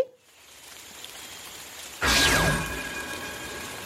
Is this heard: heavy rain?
yes